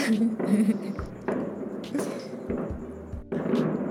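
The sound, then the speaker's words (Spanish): Fireworks rockets boom outside in an irregular string of deep, thudding bursts, several close together, with a steady background wash and faint voices underneath. “Con que sí sean cohetes. No, está bien duro.”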